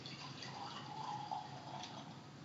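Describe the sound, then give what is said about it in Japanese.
Wine from the Kokku Winery, a 2023 vintage, pours steadily into a glass, a soft continuous gurgling trickle that stays even for a couple of seconds, fairly quiet, with no voices over it. “はい、いい音ですね。”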